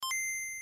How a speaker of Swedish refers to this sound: fick en del frågor och alla de frågorna har klippt bort och ersatt med ett pling som låter så här. Och det här är ju då eftersom att vi ändå upprepar alla frågorna så blir det lite smidigare att lyssna på.